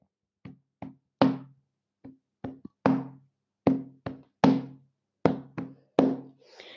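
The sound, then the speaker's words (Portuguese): A hand-tapped rhythmic beat in a stomp-stomp-clap pattern: pairs of dull low thumps followed by a sharper, louder slap, repeating steadily about three times with no talking. “A primeira coisa tem de ser fazer a batida, vai ser assim batida.”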